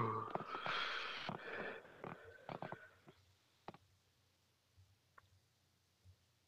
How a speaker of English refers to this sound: Oh shit! I pressed too many buttons on my keyboard.